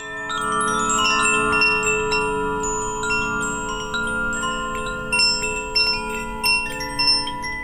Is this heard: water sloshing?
no